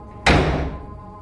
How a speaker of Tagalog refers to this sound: Pumasok siya sa loob ng bahay at padabog na sinara ang pinto.